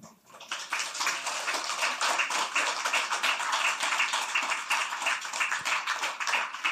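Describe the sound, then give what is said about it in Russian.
A crowd applauds steadily, many hands clapping together in a dense, continuous roar that holds at an even, fairly loud level for several seconds with no voices. “Это аплодисменты нашим героям, кумирам.”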